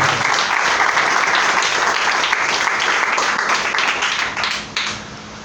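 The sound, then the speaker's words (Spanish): A crowd breaks into sustained applause for the Lord, dense rapid clapping that stays loud and steady for several seconds before thinning and fading toward the end. “Si le dan un aplauso, déselo al Señor, por favor.”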